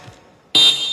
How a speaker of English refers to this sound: I, am uh, going to blow a whistle. I want you to hear it. Voy a sonar un, un esta, esta cosa. No, okay. no, no heart attacks. Que no les va a doler el corazón. Sounds like this.